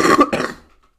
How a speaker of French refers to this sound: Excusez-moi, j'ai une sale toux.